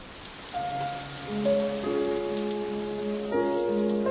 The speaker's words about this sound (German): dieser Regentropfen, der ist musikalisch und möchte mal anders klingen als immer nur so platsch